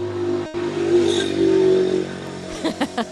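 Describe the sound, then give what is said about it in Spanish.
An engine drones steadily, its pitch rising and falling as a motorcycle rides past, with a brief voice near the end. “va a pasar una moto, aviso.”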